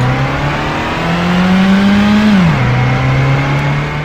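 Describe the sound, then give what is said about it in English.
A car engine revs hard and loud, its droning pitch climbing steadily before dropping sharply as if shifting gear, then holding steady as the speeding vehicle approaches. “Then, I heard the sound of a speeding vehicle coming toward the sound of the dog's bark.”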